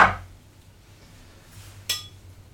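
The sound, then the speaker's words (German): A spoon taps and clinks against a glass while two tablespoons of Greek yogurt are spooned into each glass: a clink at the start, then two sharp, ringing clinks near the end, over a faint low hum. “Warte, ich mache jetzt nur mal kurz zwei, zwei Esslöffel ähm, griechischer Joghurt in jedes Glas.”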